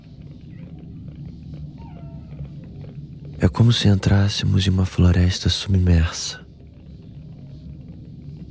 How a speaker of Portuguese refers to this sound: Escutamos cliques e o cricrilar de organismos microscópicos que formam os corais. Escutamos também o canto de alguns peixes, como se fossem pássaros submarinos.